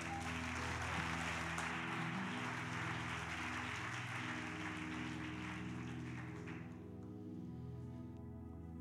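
An audience claps for Jesus during a sermon in a dense, steady wash of applause that lasts several seconds and then tapers off, while sustained keyboard chords play underneath.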